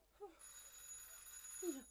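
A doorbell rings in a steady, buzzing burst lasting over a second, with short low tones just before and after it.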